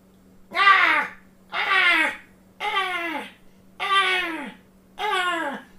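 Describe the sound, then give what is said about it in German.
A voice imitates a crow, giving five loud, harsh caws at a steady, evenly spaced rhythm, each a drawn-out squawk that falls in pitch at the end, over a faint low hum. “Das ist ein bisschen zu regelmäßig, dieses Krähen.”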